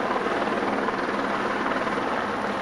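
A helicopter in flight during a police search for robbers in the metropolitan region of Belo Horizonte: a steady, loud, dense roar of rotor and engine noise that holds unchanged for the whole clip, with no voices.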